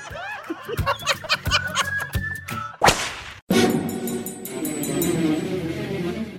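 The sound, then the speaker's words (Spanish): A belt or whip lashes several times in quick, sharp cracks, loud, with laughter and snickering around them before a dense, noisy burst takes over. “¡Sas culebra al piso y... ¡Tras! ¡Tras, tras!”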